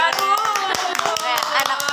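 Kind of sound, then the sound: crowd, hand clapping applause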